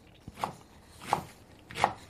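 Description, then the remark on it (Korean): Three sharp, evenly spaced knife chops on a cutting board, cutting vegetables at a steady pace, fairly quiet, with no talking. “도마에서 채소 써는 소리군요.”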